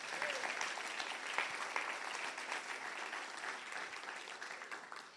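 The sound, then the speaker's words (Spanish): An audience applauds the word of God during a sermon, steady, dense clapping filling the whole stretch at an even level with no one speaking over it. “Vamos, den un aplauso a la palabra de Dios.”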